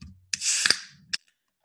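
A can of Guinness stout cracks open: a sharp click of the tab, then a bright fizzing hiss of escaping gas, a second snap midway, and a final click as it settles. No voices.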